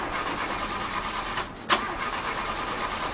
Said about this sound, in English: car not starting? Yeah, it just started doing this, and I, I don't know who to trust to take care of it.